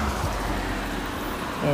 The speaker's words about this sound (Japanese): ちょっと今歩きながらで車の音とかも多分めちゃくちゃ入ってると思うんですけどすいません